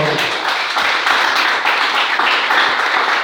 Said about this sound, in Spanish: Denle un aplauso al Señor esta mañana, por favor. Gloria al Señor.